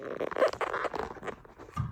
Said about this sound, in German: Ich nehme mein Handy jetzt mal raus.